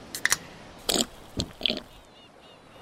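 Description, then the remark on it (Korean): Crisp crunching as someone by the sea bites and chews a crunchy drinking snack, four or five short bursts spaced irregularly over a few seconds, then quiet. “음, 맛 좋다.”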